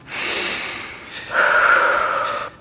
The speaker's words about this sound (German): Das ist mein Geheimtrick bei Aufregung. Durch die Nase einatmen und langsam durch den Mund wieder ausatmen.